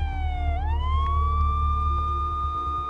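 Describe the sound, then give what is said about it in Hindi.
A police siren approaching from a distance wails, its pitch dipping briefly then sweeping up and holding a long steady tone, over a constant low engine rumble at an even, moderately loud level. “उसे दूर से आती हुई पुलिस के सायरन की आवाज थोड़ी देर में सुनाई देने लगी”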